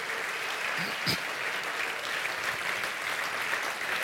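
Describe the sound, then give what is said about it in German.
Steady audience applause for the band and the technical and translation team, a dense wash of many hands clapping at an even level for several seconds, with no voices standing out above it. “Dann das all unseren Leuten, Band, Freunde an der Technik, die sogar in Räumen sind und übersetzen, einfach mal einen Applaus geben.”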